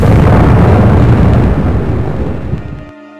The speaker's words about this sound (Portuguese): O porta-aviões Lexington sofria com um enorme incêndio. Gases de vazamentos de gasolina provocaram uma grande explosão nos convéses inferiores